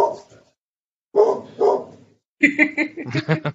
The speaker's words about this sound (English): Sorry, I think I, I, the dog's like here it is. It's an interview. I could be doing one of these at three in the morning. The dogs would find a reason to bark.